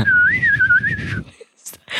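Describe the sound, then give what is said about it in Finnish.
A person whistles a wavering, bird-like warble for about a second over a low rumble, imitating the birdsong heard in the background of a video, then it stops and a couple of short, noisy bursts follow. “ja sitten mun parasta oli se, kun sieltä taustalta kuuli se linnun laulu, se Ai niin se.”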